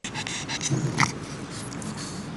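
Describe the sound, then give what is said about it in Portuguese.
A flat-faced dog named Belinha pants heavily after a quick walk in the square with its owner, its quick, raspy breaths mixed with wet snorts in a steady, continuous rhythm, with no voices. “Uma rápida caminhada na praça com o dono já deixa a Belinha ofegante.”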